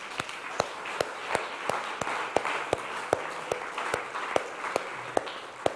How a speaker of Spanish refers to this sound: Denle un aplauso a Dios.